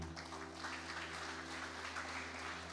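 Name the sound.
audience applauding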